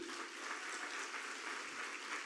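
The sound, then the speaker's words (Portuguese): An audience applauds a family steadily, a dense wash of many hands clapping at an even, sustained level with no pauses or voices standing out. “Vamos aplaudir essa família?”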